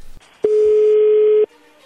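A telephone ringing tone of an outgoing phone call: a single steady, mid-pitched electronic beep lasting about a second, sounding alone between brief quiet stretches with no voices.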